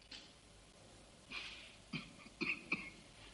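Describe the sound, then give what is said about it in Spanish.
A man, the governor, clears his throat in a few short, rough bursts, fairly quiet, with a soft breathy rasp before a tighter cluster of guttural coughs near the end. “Vuelve a mirar a los hombres, carraspea y señala a Lawrence.”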